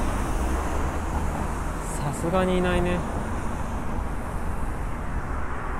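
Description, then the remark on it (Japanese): A steady, fairly loud wash of road traffic noise at night runs throughout, with many passing cars blending into a continuous roar, and a person briefly speaks over it partway through. “車は多いねでもこの時間帰宅ラッシュではない時間だと思うけど”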